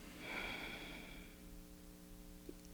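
A single deep breath drawn sharply in through the nose, airy and hissing, followed by a quieter, fading exhale through the nose, with no talking.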